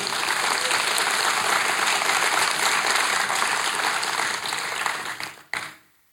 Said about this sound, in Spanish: Un aplauso para él.